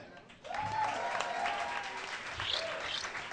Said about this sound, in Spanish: Por favor, un fuerte aplauso para la banda alcohólica.